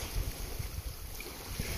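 Low, steady rumble of sea water washing and churning, with a broad hiss of wind across the top and gentle surges of surf; no voices, fairly soft and continuous.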